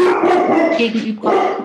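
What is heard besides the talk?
dog howling and whimpering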